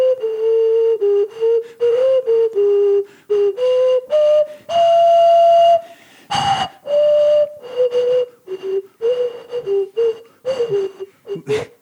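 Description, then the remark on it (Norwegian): A simple tune, a 400-500-year-old song from England, played on a flute, mid-pitched steady notes moving stepwise in short phrases separated by brief pauses, fairly loud and alone, with one brief noisy burst partway through. “er jeg 400-500 år gamle låter fra England, der teksten ikke er å forstå engang, på fløyte.”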